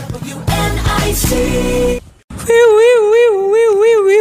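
vehicle, ambulance siren

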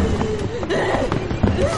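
household object, footsteps running down stairs

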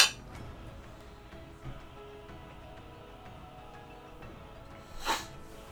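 household object, glasses clinking

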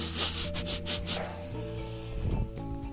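animal, dog sniffing

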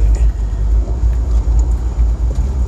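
vehicle, car interior vibration rumble

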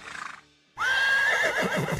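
animal, horse neighing

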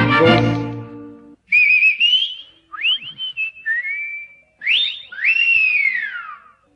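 human body sound, whistling

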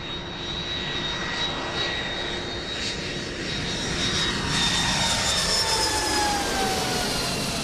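vehicle, propeller airplane engine

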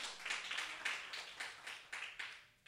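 crowd, audience applauding

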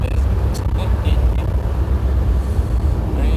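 vehicle, car driving

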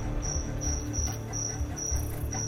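insect, cricket chirping

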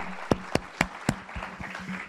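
crowd, audience applause

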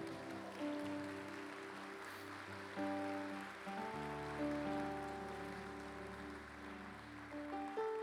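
crowd, audience applauding loudly

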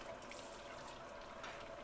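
household object, water trickling

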